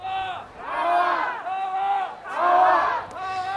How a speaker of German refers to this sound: Von der alten Oper aus ziehen laut Polizei rund 6000 Demonstrantinnen und Demonstranten friedlich in Richtung Römerberg, bei sonnigem Herbstwetter mit Musik und Sprechchören.